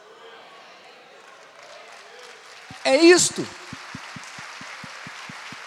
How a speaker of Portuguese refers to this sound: Se você recebe, dá mais um aplauso aí mais forte no seu lugar.